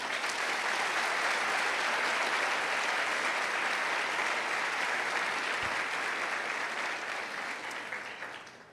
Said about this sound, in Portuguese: Deus deixou o, o terapeuta, o psicólogo, não é do inferno, ele é de Deus também. Amém? Amém? Amém? Será que você pode aplaudir essa profissão tão incrível?